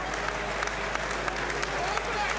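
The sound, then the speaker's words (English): A stadium crowd at a Wrexham versus York football match applauds steadily as the players walk out and shake hands, a dense, continuous wash of many hands clapping at an even loudness, with a few sharper claps popping out and a murmur of crowd voices beneath. “wow, that atmosphere is electric.”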